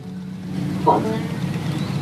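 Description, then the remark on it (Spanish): Motorcycle engines rumble in a steady, low drone at moderate loudness, with a brief brighter flare of sound midway and no clear rising revs. “Estoy escuchando unas motocicletas rugir por ahí.”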